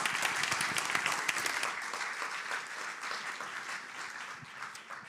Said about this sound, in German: Ein Applaus für unseren dummen Manuel.